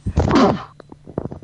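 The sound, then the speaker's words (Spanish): A single loud, explosive sneeze bursts out, followed by brief, quieter vocal sounds and murmuring. “Salud.”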